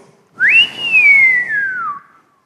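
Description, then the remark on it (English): A person whistles one long, clear call that jumps up quickly and then glides slowly downward, loud with no other sounds around it. “Hiss means whistle.”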